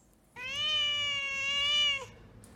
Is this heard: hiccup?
no